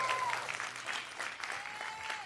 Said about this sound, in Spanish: Alguien que lo crea, que diga algo, que diga amén, que le dé un aplauso al Señor, que dé un grito de júbilo, algo.